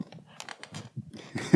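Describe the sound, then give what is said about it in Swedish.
A waiting-room chair at a therapist's apartment by Mariatorget creaks and clicks in a quick, uneven series of short sounds, ending in a louder strained groan as it shifts. No talking. “Så man kommer in så får man sitta och vänta så här, på en stol som låter typ så här.”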